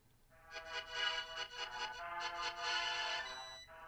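A bright, chiptune-style melody from the video game A Link to the Past plays alone, a quick run of pulsing synth notes in a bouncy rhythm, moderately loud with buzzy harmonic tones.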